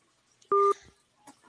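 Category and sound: signal or alarm, telephone keypad dialing tones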